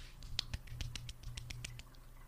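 Soft, polite clapping demonstrating one person's way of applauding: a quick run of about a dozen light, irregular claps, crisp and thin rather than loud, with no voices.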